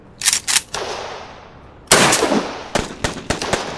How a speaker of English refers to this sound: I'm taking heavy fire.